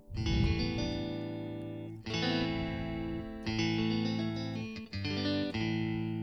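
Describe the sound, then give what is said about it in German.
Clean electric guitar plays a few ringing, sustained chords with an echo effect, each new strum blooming over the fading tail of the last. It's steady and fairly loud, with no voices. “Bei den clean Sachen. Hier ist auch gleich ein Echo drin.”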